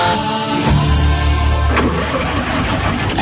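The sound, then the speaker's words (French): A car engine with a weak battery cranks sluggishly and struggles to turn over, a loud, continuous grinding drone that kicks in after a brief pause and keeps labouring without catching. No voices. “je ne suis pas garagiste, mais j'ai l'impression que ta voiture a un petit problème de batterie.”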